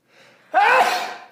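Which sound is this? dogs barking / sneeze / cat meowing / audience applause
sneeze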